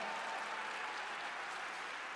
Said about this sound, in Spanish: Dele un aplauso fuerte a este hombre.